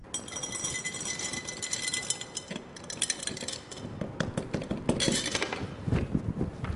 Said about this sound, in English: This would be an 80 meg oxy ER. He poured the red candies in the carafe.